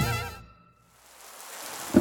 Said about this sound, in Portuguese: Em um dia de chuva, em frente ao lago, Cícero olhou para sua imagem refletida na água e começou a chorar.